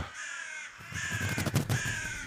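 Two ravens caw harshly and repeatedly, then a quick flurry of flapping wingbeats breaks in as the birds lift off and rise into the sky, with the calls continuing over it.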